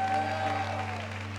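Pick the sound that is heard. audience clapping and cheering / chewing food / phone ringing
audience clapping and cheering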